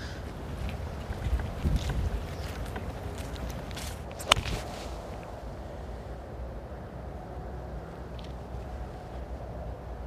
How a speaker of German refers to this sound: Wind ein bisschen von rechts hinten, links hinten.